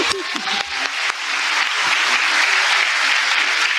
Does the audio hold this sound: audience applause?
yes